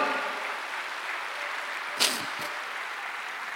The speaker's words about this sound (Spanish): Dale un aplauso a Cristo, a su nombre, gloria.